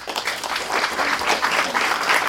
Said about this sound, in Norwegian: Ok, jeg tror vi sier tusen takk til, til dere. Kan dere gi dem en applaus?